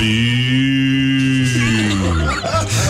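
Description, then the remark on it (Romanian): A person imitates a calf mooing with one long, drawn-out, loud low moan that sags in pitch and breaks up at the end. “aș vrea să mai aud cum face puiul de vacă.”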